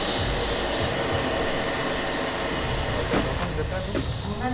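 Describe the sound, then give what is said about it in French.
Construction site where workers are demolishing and sorting: a steady, loud mechanical rumble fills the scene, with a few sharp clanks and knocks toward the end. “Je suis devant le chantier. On entend les ouvriers qui travaillent, qui démolissent, qui trient.”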